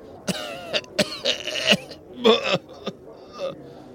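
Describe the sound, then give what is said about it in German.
A string of heavy, raspy coughs comes in quick irregular bursts, fairly loud, with a few harsher hacking fits in the middle and no speech. “Pustest zwischen deinen Händen hindurch und fängst an, unheimlich zu husten.”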